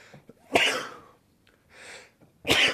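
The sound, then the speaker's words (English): Two sharp, explosive sneezes burst out, separated by a softer breathy intake, with no talking around them. “Let's sneeze three fucking times during the middle of the podcast.”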